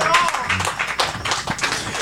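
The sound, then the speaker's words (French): A round of applause: dense, steady crowd clapping fills the whole two seconds at a fairly loud level, with voices mixed in underneath. “Main d'applaudissements.”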